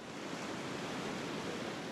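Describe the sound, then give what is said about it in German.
Huge waves breaking at dawn on the beaches of Sumba: heavy surf roars in a steady, dense wash of hissing noise, the waves rumbling continuously without a clear break or pause. No voices are heard. “Im Morgengrauen brannten riesige Wellen an die Strände Sumbas.”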